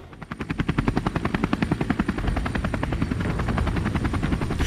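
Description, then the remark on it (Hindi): An Indian Coast Guard rescue helicopter's rotor thumps in a fast, steady rhythm, loud as it passes overhead, then blurs into a continuous whirring roar as it moves on. It is arriving at the island of the Sentinelese in the Andaman Islands after the 2004 tsunami. “लेकिन जब Indian coast guard का रेस्क्यू हेलीकॉप्टर वहां पहुंचा तो उस हेलीकॉप्टर का स्वागत एक बार फिर तीरों से किया गया और उस हेलीकॉप्टर को वापस आना पड़ा”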